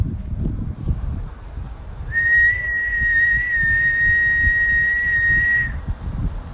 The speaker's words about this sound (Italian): Ok, e questo era il fischio.